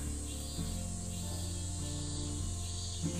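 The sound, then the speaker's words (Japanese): Loud, steady insect buzzing fills the air outdoors, a continuous shrill drone like cicadas that holds without pause, with no one talking. “セミが、セミがすごい。”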